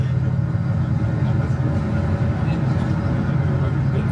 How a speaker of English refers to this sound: Big old school tour bus.